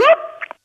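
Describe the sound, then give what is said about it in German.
A voice briefly imitates an old 1980s vacuum cleaner with a quick rising, buzzy hum that holds as a thin whine, then ends in two short breathy puffs, alone. “ich habe ja lange, Jahre jahrelang früher den 80er Staubsauger synchronisiert.”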